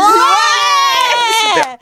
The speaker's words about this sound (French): incroyable. La foule est en délire.